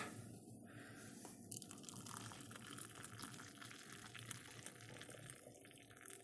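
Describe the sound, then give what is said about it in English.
Freshly brewed coffee pours steadily into a cup, a soft continuous trickle with faint splashes and clinks lasting several seconds, fairly quiet, with no one talking. “So yeah, I've just uh, brewing up a coffee, so I'm just going to pour it out and.”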